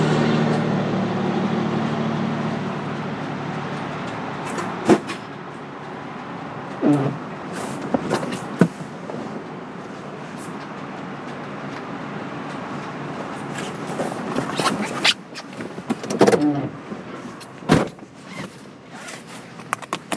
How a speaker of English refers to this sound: And as you ask that question, I'm going to set down my recorder because I have to unload trash from my truck.